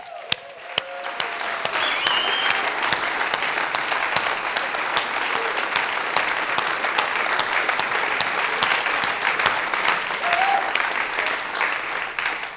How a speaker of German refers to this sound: Haben wir noch andere Ärzte oder Pflegepersonal da drinnen? Tun euch mal bemerkbar machen wir möchten euch einfach mal einen riesen Applaus geben für das, was ihr gemacht habt.